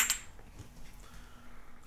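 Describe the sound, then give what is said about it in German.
A single bright, ringing clink of glasses touching in a toast, right at the start, followed by a quiet low hum with no one speaking. “Oh, hier wird gerade angestoßen.”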